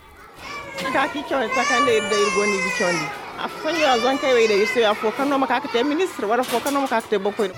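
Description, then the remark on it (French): About twenty children at the Centre Niali shout and cry at once at snack time, high wailing voices overlapping loudly in a continuous, chaotic din with no pauses. “À l'heure du goûter, entourée d'une vingtaine d'enfants, la dame dans la quarantaine n'est pas dérangée par les cris et les pleurs.”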